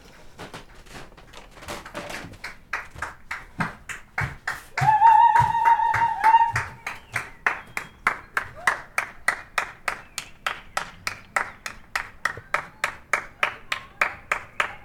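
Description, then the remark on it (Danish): Steady rhythmic hand clapping from a group of people outdoors, heard from a window on Friday the 13th, sharp regular claps continuing throughout, with a brief tonal sound like a horn or voice rising around the middle. “Det er nogen, der klapper.”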